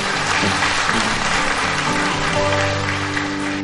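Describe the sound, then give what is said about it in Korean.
An audience applauds, as fellow peers, young people taking their first steps into society: a dense, steady wash of many hands clapping at even loudness for several seconds, with faint sustained musical tones underneath and no one speaking. “지금 막 사회의 첫 발을 내디디는 대학으로 또 직장으로 아니면 또 다른 준비로 어, 아니면 지금 아직 갈 길을 잘 몰라서 그냥 가만히 있는 청춘들에게도 여러분들이 함께 동료로서 박수를 좀 쳐주면 좋겠다 그런 생각이”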